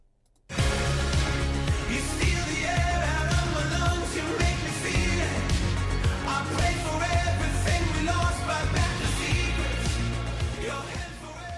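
An upbeat indie pop song kicks in after a brief silence and plays loud and full throughout, with driving drums, layered instruments and a steady energetic rhythm.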